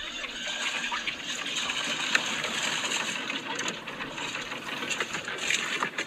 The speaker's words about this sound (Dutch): Nou, er komt wel water uit, hoorde je dat?